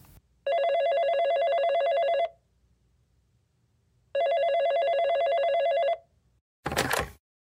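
telephone ringing

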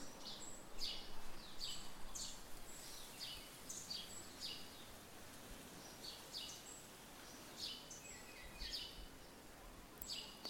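birds singing outdoors

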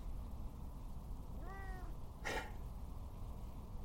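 domestic cat meowing

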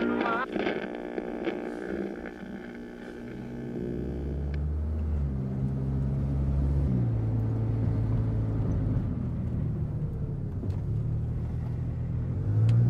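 taxi car engine running

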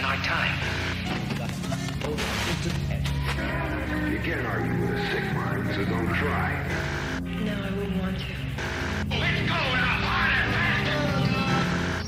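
indie rock song playing

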